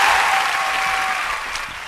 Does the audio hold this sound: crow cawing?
no